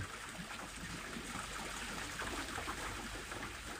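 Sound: flowing river water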